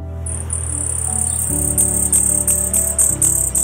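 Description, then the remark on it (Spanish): A common hummingbird sings a thin, very high-pitched buzzy trill that breaks into rapid, evenly spaced squeaky chirps, over a low steady hum in the background. “Así suena un colibrí común.”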